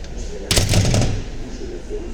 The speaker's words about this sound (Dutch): En als je uiteindelijk door de deur was die nu open gaat dan uh, ja, kon je opgelucht ademhalen.